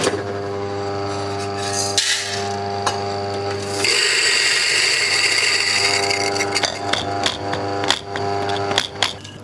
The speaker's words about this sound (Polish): Ustawiam sobie młynek do, y, do zmielenia kawy i włączę.